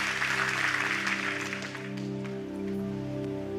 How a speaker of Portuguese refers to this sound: Então aplauda ele bem forte.